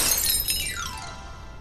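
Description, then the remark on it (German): Window panes shatter in a single loud crash as a donkey, dog, cat and rooster plunge through the window into the room, a bright burst of breaking glass whose high tinkling shards ring out and scatter for a moment before fading, with no voices. “Und dann stürzten sie alle durch das Fenster in die Stube hinein, dass die Scheiben knirrten.”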